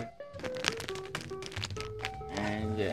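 A plastic coffee sachet is squeezed up close, giving a run of sharp crinkling crackles over about three seconds, with faint voices murmuring underneath.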